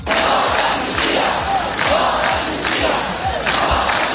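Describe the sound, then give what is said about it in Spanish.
A large crowd chants in unison at a street demonstration in Barcelona against Pedro Sánchez's amnesty for Catalan independence supporters, loud rhythmic shouted phrases repeating roughly every second over a steady roar of voices, with no single speaker standing out. “El constitucionalismo vuelve a tomar en masa las calles de Barcelona para oponerse a la amnistía de Pedro Sánchez a los independentismas.”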